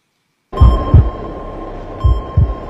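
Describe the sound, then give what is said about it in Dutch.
A slow heartbeat sound effect representing the heartbeat of Jesus as he nears death: two heavy, low lub-dub thumps about a second and a half apart, over a faint steady electronic hum. “En we horen al langzamerhand, horen we zijn hartkloppingen horen we gaan.”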